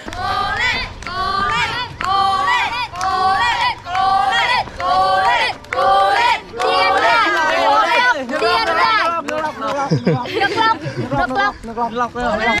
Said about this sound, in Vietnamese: Nói về cái chất doping trong ngoặc kép là cái nguồn năng lượng sảng khoái hưng phấn nó xuất hiện trong cơ thể của chúng ta nó cũng sẽ đến khi mà bạn thấy một checkpoint mà có các cái bạn tình nguyện viên họ cũng đứng xếp hàng và họ vỗ tay